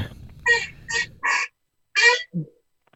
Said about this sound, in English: What is that noise? What was that? That's uh, my chair, man. My bad. Oh, okay, it's like that. It's like a duck in the background.